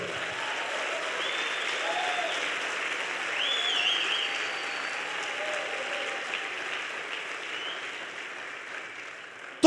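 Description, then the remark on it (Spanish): An audience applauds for Jesus, a dense, continuous wash of clapping that holds at a fairly even level for nearly ten seconds, swelling slightly midway, with no speech over it. “Yo le daría un aplauso mejor a Jesús por eso.”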